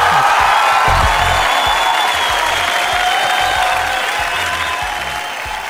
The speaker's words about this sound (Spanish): Así que un aplauso también para ese gran valor